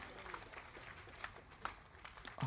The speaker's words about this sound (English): A super clap offering. Hallelujah.